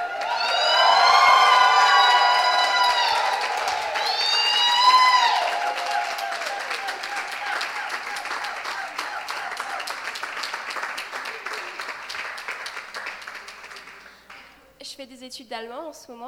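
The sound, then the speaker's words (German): A crowd lets out a loud, sustained victory shout to the Lord with high wavering cheers and whoops, over steady applause that continues after the shouting fades, ending with a few scattered voices. “Ça mérite bien un cri de victoire vers le Seigneur.”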